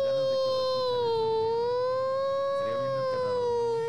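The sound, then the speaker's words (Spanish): A refinery emergency warning siren in Richmond, which sounds about once a month, drones steadily with a slow, wavering pitch, loud and sustained throughout, with faint voices murmuring underneath. “Ahí este, como está la refinería ahí, a veces ponen esa pinche alarma, güey.”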